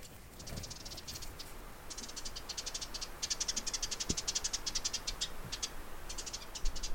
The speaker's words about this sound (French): Il y avait tellement de vent que quand la tente se commençait à se replier sur moi, j'étais persuadé que c'était un ours qui était en train de me renifler.